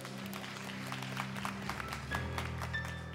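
An audience breaks into steady applause for the glory of God during a sermon, many hands clapping at once in a dense, even patter, with a low sustained tone humming underneath throughout.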